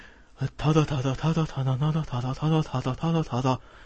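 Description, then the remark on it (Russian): A single voice mimics the kind of dramatic string music that starts at dramatic moments in recent action films, singing a driving run of short, pulsing notes in a steady rhythm, fairly loud, with no other sounds behind it. “и вот что меня бесит в любом экшн-фильме последних вот лет, так не знаю, пяти, снова, когда драматичный момент, начинается музыка такая”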